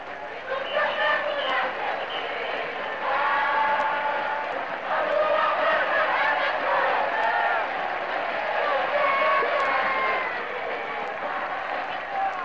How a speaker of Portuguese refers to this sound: As vozes dos assistentes e dos sambistas unem-se no samba.